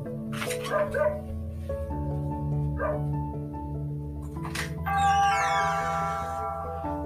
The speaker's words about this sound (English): Front door. Had to let the dog in. I have two dogs. I have a beagle and I have a Maltese, and they are emotional support dogs. Um, had to let them in,